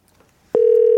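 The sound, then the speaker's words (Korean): After a brief quiet moment, a steady, loud telephone tone switches on abruptly and holds unbroken, the dial or ringing tone of a phone call being placed to a singer. “자 그러면 바로 한번 전화 걸어볼게요.”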